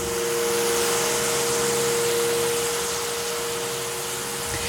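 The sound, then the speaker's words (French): A snow cannon making artificial snow at night at Parc Jacques-Cartier roars steadily, a loud, unbroken blast of hissing air and spray over a constant droning mechanical hum, with no voices. “Rapproche-toi donc un petit peu du canon, s'il te plaît! Je ne sais pas si vous l'entendez, mais c'est très fort.”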